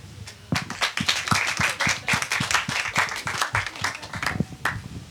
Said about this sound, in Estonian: nii et aplausiga saadame siis lavale neljanda tiimi